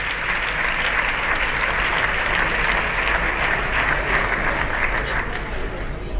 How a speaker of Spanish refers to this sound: Sí, los aplausos, estamos en directo, no se ha cortado la comunicación, continúan los aplausos.